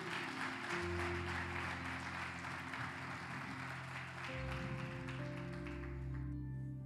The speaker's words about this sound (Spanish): Dele ese aplauso a Él. Aleluya.